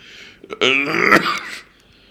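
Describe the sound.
A person imitates a horrible cough: one harsh, rasping, drawn-out hack with a strained, voiced groan running through it, loud and rough before fading out.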